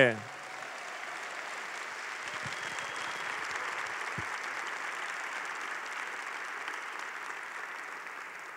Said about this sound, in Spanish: Dale un fuerte aplauso a